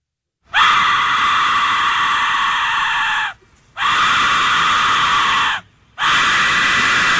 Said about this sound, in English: It's true. If you hear that whistle, you're about to die. You're going to be killed by Aztec warriors or flambéed in a mm-hmm. sacrifice. That was the Aztec death whistle.